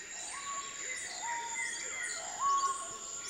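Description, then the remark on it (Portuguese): A bird typical of the region around Alter do Chão sings a two-part song: a few short, quiet notes followed by clear, stronger whistles, repeated several times over a steady, high-pitched background drone outdoors. “ouvindo os remos deslizando sobre as águas e o canto dos pássaros típicos da região”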